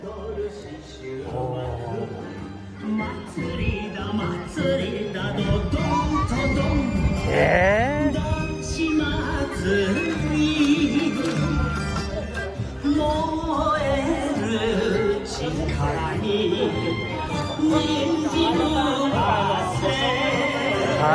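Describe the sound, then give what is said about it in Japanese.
Bon odori festival dance music plays loudly and steadily throughout at a bon odori in a parking lot between Handa Shinkin Bank and Nagoya Bank, with a wavering, sliding melodic voice line over a dense low rhythmic backing. “銀行と銀行の間で挟まれた駐車場で、えー、盆踊り。”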